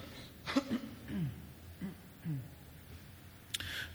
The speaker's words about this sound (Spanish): Perdón por las 80 veces que voy a toser.